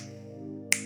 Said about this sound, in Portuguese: E quando eu estalar os meus dedos